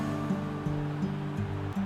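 A steady wash of ocean surf rolls on continuously at moderate volume, with no sharp individual crashes, over a faint sustained low hum.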